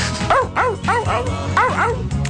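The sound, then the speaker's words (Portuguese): Several voices imitate dog barking as the barking part at the end of a song, in a quick series of arched, yelping woofs, about five or six in a row, loud, with a steady background hum underneath. “Sim, a parte dos latidos.”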